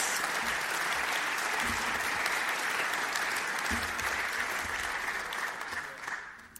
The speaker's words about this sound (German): Wir hätten wissen können, wohin die Entwicklung treibt, wenn wir auf Christa Mewes gehört hätten, die ab den 70er Jahren unermüdlich die Gefahren gesehen, beschrieben und davor gewarnt hat. Und auch ihr gebührt ein Applaus.